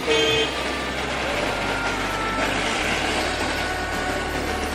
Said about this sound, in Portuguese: O trânsito infernal de Marrakech reflete o coração que palpita no país, muito intenso e variado.